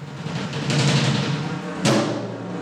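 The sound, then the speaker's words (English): A heavy thud lands once near the end over a dense, echoing arena din of crowd noise and movement, fairly loud, from a wrestling match staged by New York based artist Sean L.C. Leonardo during the Radical Presence exhibition. “Here's the sound of the arena, a wrestling match that New York based artist Sean L.C.”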